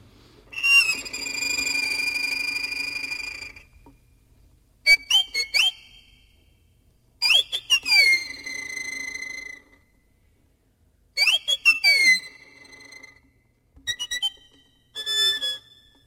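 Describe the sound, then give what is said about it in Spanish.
Instrumental music from a work by Romanian composer George Enescu mimics the song of a small bird he heard as a child: a long sustained whistling phrase, then several short chirping bursts with quick upward and downward slides, separated by brief pauses. Clear, no voices. “es la misma idea que es de Enescu de George Enescu un compositor rumano que escribe a través de su escritura se accede al sonido de un pajarito que él escuchaba de pequeño, es así.”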